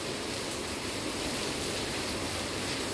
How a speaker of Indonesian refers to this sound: Di sini posisinya lagi hujan dan kedengeran gak ya suara hujannya? Harusnya sih iya ya. Yeah. Hujan-hujan gini, apalagi hujannya di sore hari.